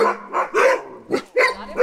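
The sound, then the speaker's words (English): A run of quick, yappy barks from puppies, about six short bursts in an uneven rhythm, fairly loud with no talking. “they're just their little tails are wagging they're adorable we'll post pictures of course but there's the big puppies you have”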